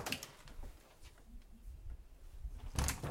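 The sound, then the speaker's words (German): Quiet swing doors in a hospital corridor knock and thump as they swing, with one bump at the start and a louder one near the end over a low, hushed background. “Also hier wird ordentlich einer weggeschwungen an den Türen.”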